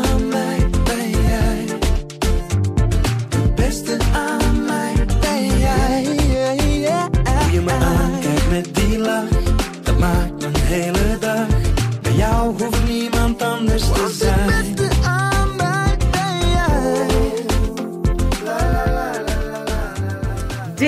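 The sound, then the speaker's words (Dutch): A pop song plays loud and full, with a singing voice over a steady thumping beat and a dense band that carries on without a break. “gaan eerst eens luisteren naar eh, …”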